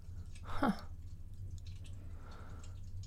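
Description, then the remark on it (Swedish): Water gurgles and clicks inside pipes, with one brief bubbling burst early on and faint ticks afterward, all quiet over a steady low hum. “Mm, detta från rörens, vad mm. ska vi kalla det? Inte klickande, men porlande.”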